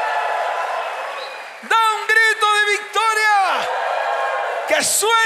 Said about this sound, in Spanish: Dale fuerte ese aplauso al Señor. Da un grito de victoria.